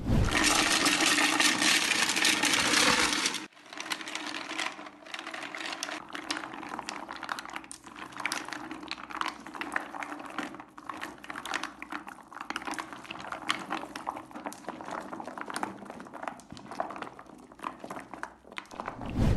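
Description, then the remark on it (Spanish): A loud rush of water poured over about 200 bars of soap opens, then the bars shift and slide against each other in dense wet clicks and scrapes, with no talking. “ahora vamos a escuchar este ASMR de muchos jabones, son fácil como 200, así que los empiezan a mover, les echan agua y escuchen nada más esto.”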